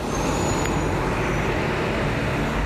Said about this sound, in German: In der Nähe des Plaza Nuevo de Julio spuckt der Bus die Fahrgäste aus. Die Rapper steigen um in das nächste Kollektivo.